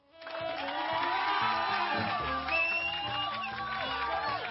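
A crowd cheers and applauds loudly for several seconds, a steady wash of many shouting voices with high whoops rising and falling over the top, no single speaker standing out.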